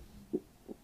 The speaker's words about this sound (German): Wow, hast du meinen Magenknurren gehört?